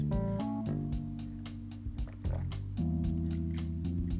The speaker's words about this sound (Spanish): van a escuchar que me estoy sirviendo agua